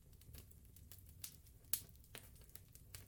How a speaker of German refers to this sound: Sein prasselnder Kamin. Und ich dachte mir so im Hintergrund ein prasselnder Kamin mit dem kleinen bisschen mit ein bisschen Pianospiel. Das könnte vielleicht ganz angenehm sein.